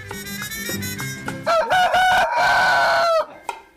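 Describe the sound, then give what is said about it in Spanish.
A few short, clucking calls lead into one long, loud rooster-style crow that rises, holds a bright warbling pitch for over a second, then cuts off sharply. “él cantaba como gallo para engañar a las gallinas”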